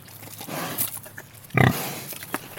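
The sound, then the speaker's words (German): Two large pigs grunting as they come running after being called and whistled for, a few short snorting grunts with one louder burst near the middle, over faint rustling and outdoor background noise. “kommen zwei große Schweine herbeigelaufen.”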